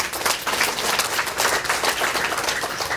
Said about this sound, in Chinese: 来，我们给这些顾问一个热烈的掌声啊！